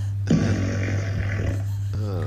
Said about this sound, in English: Alexa, do an engine rumble a fart. Here comes an engine rumble a fart.